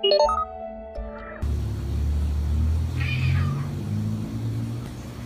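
A cat gives one drawn-out, wavering meow over a steady low rumble, after a brief burst of sustained tones at the very start. No one speaks.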